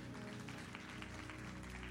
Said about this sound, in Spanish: ¿Cuántos pueden dar un aplauso fuerte a Jesús?